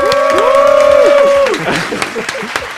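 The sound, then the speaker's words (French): An audience applauds with dense, steady clapping, joined in the first half by sustained, slightly sliding musical tones that stop abruptly, leaving the clapping to continue and thin out. “Allez, des applaudissements pour Joe.”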